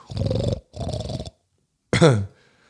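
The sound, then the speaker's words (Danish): A person's voice imitates an animal's grunting sound heard about 150 meters ahead: two low, rough, drawn-out grunts, a brief pause, then a sharper grunt that drops in pitch, fairly loud. “Og så lige pludselig, så øh, sådan en 150 meter måske fremme, der kan jeg høre sådan en grøntelyd, sådan...”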